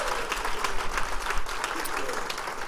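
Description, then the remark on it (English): A large church audience applauds steadily and loudly to thank online viewers for joining, dense overlapping clapping for a few seconds, with some crowd voices mixed into the sustained, fairly loud ovation. “Could you be real loud and make sure that they know how grateful we are that they're joining us?”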